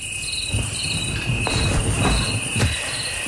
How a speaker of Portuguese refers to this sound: Vou pôr aqui a tocar sons campestres noturnos. ok. Isto não são grilos. São, são.